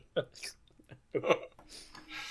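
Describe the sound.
Wet mouth slurping made by a voice, imitating sucking a paintbrush tip after it has been in the water cup: two short throaty bursts followed by a longer airy, hissing suck at the end.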